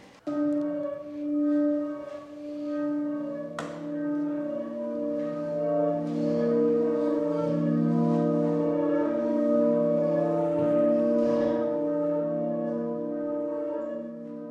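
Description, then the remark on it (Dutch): Music plays on its own with no talking, built from sustained, resonant tones that ring and overlap like bells or chimes, held at a steady, fairly loud level throughout. “Ga nu nog maar weer een keer de muziek aanzetten en dan kan ik het nog even laten horen.”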